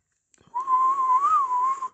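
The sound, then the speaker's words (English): A person whistles to find lost tickets: a single sustained, steady tone that wavers slightly and rises briefly near the end, lasting about a second and a half, clear with no talking. “They do anything for a whistle.”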